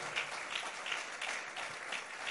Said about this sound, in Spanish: es un aplauso a la presencia de Dios en este lugar? Aleluya.